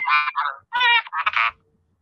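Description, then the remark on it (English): A croaking-frog phone ringtone set for a friend's incoming calls: four loud, raspy, buzzing croaks in a quick uneven burst, lasting about a second and a half, then silence. No one speaks over it. “that is the ringtone I have for a friend of mine who talks all the time.”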